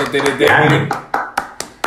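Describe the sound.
Brief applause from a small group: dense clapping mixed with voices at first, then thinning into a handful of sharp, evenly spaced single claps, roughly four per second.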